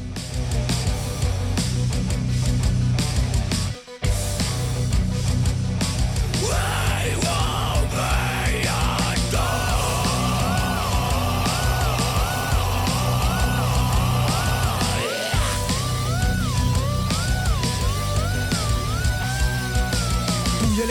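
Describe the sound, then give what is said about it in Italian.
A loud, dense song written by ChatGPT and sung in Italian, with a heavy driving beat and a strained, shouted lead vocal that wails and slides in pitch, with a brief dropout of sound near the start. “che è un brano scritto proprio da Chat GPT, a cui diamo il benvenuto perché è qui tra noi ed è ovunque, ed è stata arrangiata a, ah, dal 11 barra 34, 34, che non so cosa sia, ma, ma noi ci fidiamo.”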